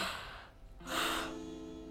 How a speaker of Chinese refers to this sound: 哦，我一直好想打哈欠